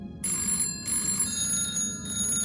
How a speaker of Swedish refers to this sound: Och utöver allt detta, en intensiv telefonterror. Hos somliga familjer ringer det nästan dygnet runt. Utan att det hörs någon i andra änden.